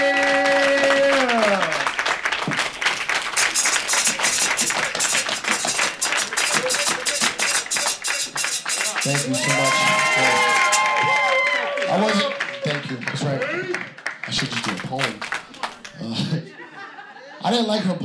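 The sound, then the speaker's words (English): A comedy audience bursts into loud, sustained applause with whoops and cheers as comedian and Hot 97 radio personality Cipha Sound is introduced. The dense clapping runs for around twenty seconds, easing slightly toward the end as voices and laughter rise through it. “Please put your hands together for Cipha Sound!”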